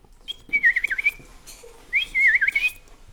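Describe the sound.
A person whistles two short, warbling phrases in imitation of a bullfinch's call, separated by a brief pause. The whistling is clear, with no talking.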